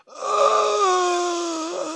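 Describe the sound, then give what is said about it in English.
A person imitates an old-movie death groan: one sustained, moaning tone of about two seconds that holds steady and sags slightly in pitch before trailing off. “But back in the day, everyone had to do a death groan.”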